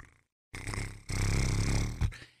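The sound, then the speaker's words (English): A voice imitates the faint vibrating buzz heard inside a hybrid car with the engine off: a short rough drone, then a longer, steadier low rattling hum that ends with a small push, fairly loud with no talking. “apparently, it was the the vibration of the uh,”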